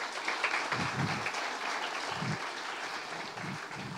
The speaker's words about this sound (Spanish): Démosles un fuerte aplauso. Gracias.